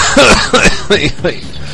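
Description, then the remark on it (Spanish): A person coughs four times in quick succession, loud, each cough a harsh burst with short pauses between, fading slightly toward the end. “Bueno, no, toso ahora y ya luego me cayó.”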